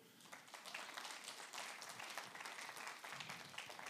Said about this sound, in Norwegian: Skal vi klappe for dem som er nye her for første gang?